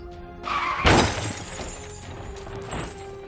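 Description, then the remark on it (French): A car misses a bend and crashes: a sudden, loud crash with shattering debris bursts out about a second in, followed by scattered clatter and a second smaller impact, with no one speaking. “En rentrant chez lui, il a loupé le virage et il s'est mangé le gros chien en train de brûler.”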